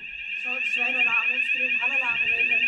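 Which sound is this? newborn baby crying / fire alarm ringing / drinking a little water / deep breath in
fire alarm ringing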